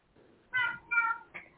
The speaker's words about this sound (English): your cat is sounding wild. She's in heat, and this is what happens.